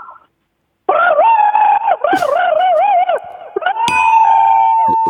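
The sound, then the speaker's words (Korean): A person imitates a crow's caw as one long, raspy, drawn-out call with a wobbling, warbling pitch, held loudly for about four seconds with no other talk. “아, 기본 까마귀 들어볼게요.”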